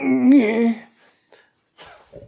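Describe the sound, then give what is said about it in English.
A man's voice lets out a loud, drawn-out mock orgasm moan, meant as Blade Runner fans climaxing, that swells in pitch and then fades, followed by a couple of soft breathy gasps and quiet exhalations. “that was Blade Runner fans coming.”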